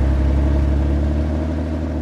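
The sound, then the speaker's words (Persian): A car accelerates and pulls away as the driver hits the gas before its doors are even shut, its engine a loud, continuous low rumble throughout, with no voices. “همین که در ماشین رو باز کردیم و نشستیم قبل از اینکه در رو ببندیم گازش رو گرفت و راه افتاد”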